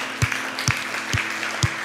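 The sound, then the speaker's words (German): Applause after a prayer, in a steady rhythm: four sharp, loud claps evenly spaced about half a second apart, ringing over a continuous hissy background of crowd noise. “Kann man das mal einen Applaus geben hier?”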